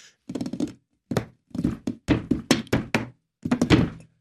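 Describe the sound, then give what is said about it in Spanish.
Rhythmic knocking on a wooden table, fairly loud, played in short bursts of quick hollow thunks separated by brief pauses, like a drumming pattern with no voices. “Eso, la misma mesa puede crear sorpresa, puede crear un sonido.”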